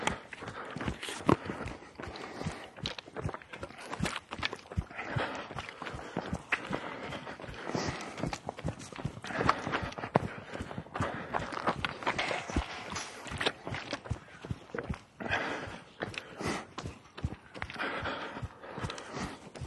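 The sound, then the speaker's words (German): A steady stream of hoof clops on hard ground from several horses walking past as they are moved to another paddock, a dense irregular clatter with no talking. “So, hier werden irgendwelche Pferde überführt auf eine andere Koppel sehr interessant.”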